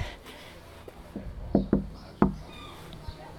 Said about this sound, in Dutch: En ik klop op het raam, want de bel doet het misschien niet.